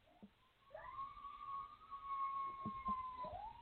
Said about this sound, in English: That's real live coyotes in the desert.